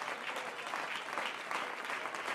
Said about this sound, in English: Come on, we're the people of God. Why don't you clap your hands if you're thankful to be a part of the church?